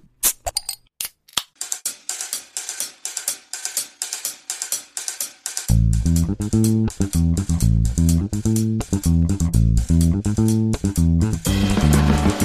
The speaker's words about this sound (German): Es hat sich eine Flasche geöffnet und das haben wir auch äh, selber mit aufgenommen. Wir haben eine Gösserflasche aufgemacht, das auch mehrfach.